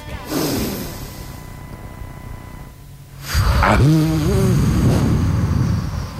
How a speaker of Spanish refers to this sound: Hacemos una respiración tirando el aire, inspiramos en tres.